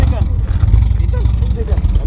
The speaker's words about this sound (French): Voilà, alors on, écoute quelques bolides ici, les V8, V10, ça ne manque pas. Voiture américaine, grand